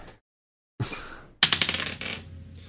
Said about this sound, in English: Go ahead, uh, roll a um, d20.